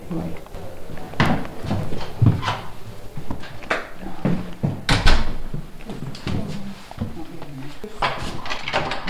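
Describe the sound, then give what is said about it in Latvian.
A heavy old prison door with a small window and a feeding hatch being opened, with several solid metallic clunks and bangs spread over a few seconds, while people talk quietly. “Bet tās durvis ir cietuma.”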